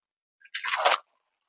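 The cap of a glass bottle of raw water is opened; the bottle is an early version from a couple of years back, long unopened. A small click, then a brief crunchy crackle with a hiss of released air, with no one talking.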